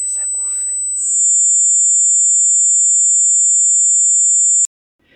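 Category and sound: sound effect, simulated tinnitus ringing tone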